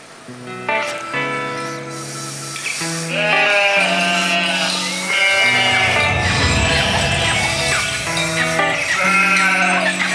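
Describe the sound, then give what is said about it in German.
Several sheep bleat over and over on an alpine pasture in Switzerland, their wavering calls overlapping, with a steady rushing, breezy outdoor noise underneath and no talking. “Und da haben wir unseren Außenreporter losgeschickt auf die Schweizer Alm.”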